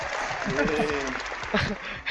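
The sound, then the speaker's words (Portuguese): A canned applause sound effect, played on cue during an online hangout: steady, dense clapping from a crowd that fills the whole clip at an even level, with a voice talking over it partway through. “Esse, esse som parece é esses sons parecem tipo do PowerPoint, sabe?”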